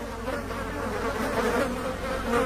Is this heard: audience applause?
no